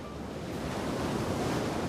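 Strong North Sea wind on the coast of Essex, England, at 14:00, where 48 offshore wind turbines generate power, roars steadily against the microphone, mixed with a broad wash of surf, a loud continuous rush with no voices present.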